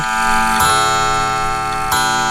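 clock ticking and striking

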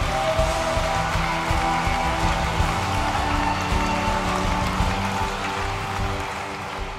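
audience applauding

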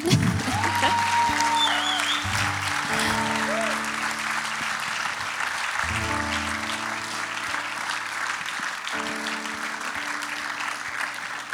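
big round of applause

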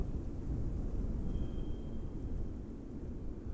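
strong wind blowing

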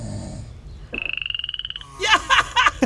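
frogs croaking

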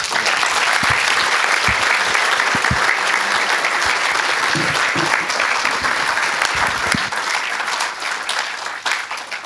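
audience applause

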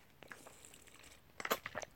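sipping water

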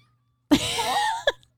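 kitten meowing

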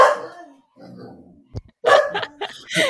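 dogs barking

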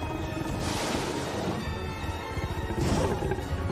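kookaburra call

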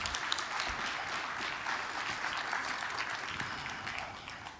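audience applauding

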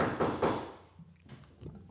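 knocking on a door

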